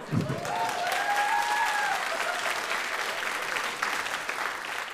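Steady audience applause, an extra round given for a trophy award, with dense, crackling clapping that holds at a fairly even loudness, accompanied briefly early on by a rising whistle-like tone and some faint voices.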